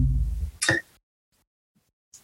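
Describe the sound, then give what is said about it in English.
A single sharp hiccup bursts out after a low muffled rumble, followed by near silence and a faint brief click at the end. “Okay, I've got the yes. hiccups.”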